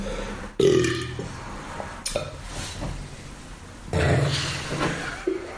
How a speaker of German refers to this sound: Moment, ich muss rülpsen.